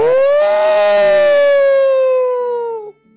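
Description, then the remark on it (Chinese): A single long, loud howl of a hungry wolf imitated by a human voice: a sustained, bright "oooo" that swells slightly in pitch, then slowly sinks before cutting off abruptly. “有一天，一只狼坐在驴小弟变成的那块岩石上，饥饿的一遍又一遍的嗷叫着，呜！”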